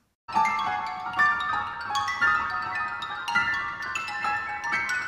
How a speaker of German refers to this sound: Jetzt nehmen wir mal ein Beispiel. Ligeti, das Klavierkonzert.